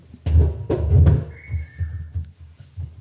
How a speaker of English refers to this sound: I'm were, just going to move my chair.